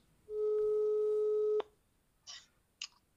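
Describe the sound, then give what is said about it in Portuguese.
A single steady telephone ringing tone of a phone call sounds for about a second, then cuts off abruptly, followed by a few short, soft rustling clicks like a handset being picked up. “e por isso nada melhor do que a tradicional chamada por telefone.”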